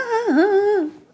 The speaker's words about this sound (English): Uh, that was my cup moving. Just FYI.